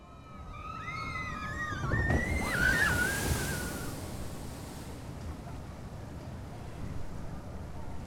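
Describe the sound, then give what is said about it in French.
An amusement park water ride plunges into a pool with a loud rushing splash, high squeals rising just before and during it, then a long sloshing wash of churning water fading into background noise. “Alors qu'est-ce que c'est Là, j'ai comme qui dirais, l'impression que c'est un, un, parc d'attractions.”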